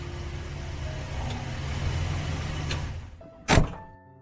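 A luxury sedan's steady engine and road rumble eases off and dies down as it drives into a villa estate and comes to a stop in front of a lavishly decorated villa, followed by a single sharp thud and then near silence.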